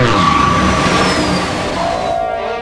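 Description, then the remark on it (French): Spaceship engines aboard the Bad System rumble back to life and rev loudly as the ship attempts an evasive manoeuvre: a steady roaring drone with a high whine that slowly slides downward, continuous for a few seconds. “Alerte Activité mécanique à bord du Bad System Les moteurs se rallument Le Bad System tente une manœuvre d'évitement”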